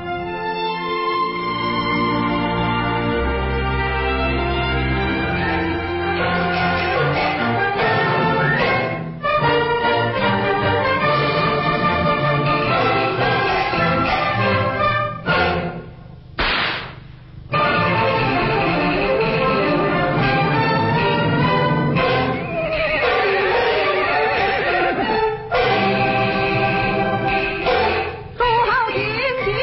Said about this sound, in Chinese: 听到的是北影厂在一九七零年拍摄的现代京剧《智取威虎山》的节选。